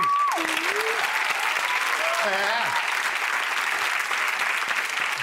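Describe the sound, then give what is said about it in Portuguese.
A theater audience applauds two more Billys and two more Michaels from the musical seated in the audience, a dense, steady wash of clapping, with a brief spoken syllable and a few voices rising over it near the start and middle. “Podem aplaudir.”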